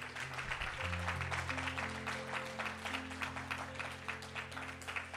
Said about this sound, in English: Can you give the Lord a hand clap if you believe that word?